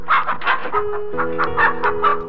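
A chicken clucks in a quick, agitated series of about ten sharp squawks, loud, with a steady low hum underneath and no voices.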